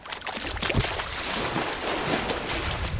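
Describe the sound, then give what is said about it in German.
Water splashes close by as seals plunge into the water from the rust-brown muddy shore when a boat comes too near, over a steady rush of boat and wind noise, with a few brief sloshing bursts rising out of the continuous wash; no one speaks. “Und dann ein lautes Platschen. Das Boot ist den ersten Robben offenbar zu sehr auf die Pelle gerückt.”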